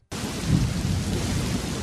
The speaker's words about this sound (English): This time of year, it seems thunderstorms are an everyday occurrence.